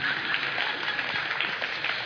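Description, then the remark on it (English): A couple of people in a church audience clapping, a steady patter of hand claps blending into a dense, hissy rustle that holds at an even, moderate level for about two seconds, with no talking. “Two of you clapping.”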